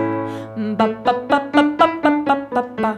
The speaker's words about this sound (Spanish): ahora vamos a trabajar con el picado o staccato en italiano